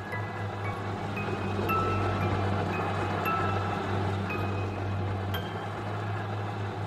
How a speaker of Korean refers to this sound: 그런데 부엌에서 이미 믹서기가 도는 소리가 들려오고 있었다.